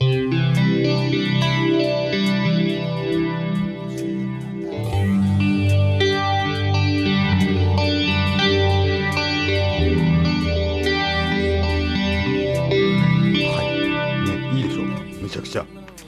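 A newly bought electric guitar plays a clean, pretty tone, ringing out in sustained, shimmering chords and melodic phrases, played steadily for about sixteen seconds before trailing off at the end.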